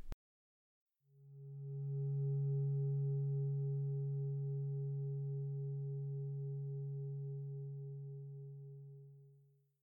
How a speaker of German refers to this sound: Die Meditation beginnt und endet mit einem Gong.